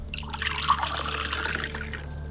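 Water trickles steadily into a glass for a couple of seconds, a continuous splashing pour with no voices.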